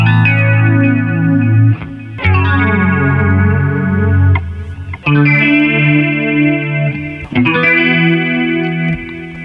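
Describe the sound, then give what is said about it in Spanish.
A slow progression of four sustained, dissonant chords with added ninths, played loud on a thick, effect-laden tone with a chorus-like shimmer, each chord ringing out before the next; the added ninth above the octave gives every chord friction. “al añadir la cuarta nota, la que está después de la octava, todos los acordes tienen esa fricción, esa, disonancia y la progresión suena así de bonita.”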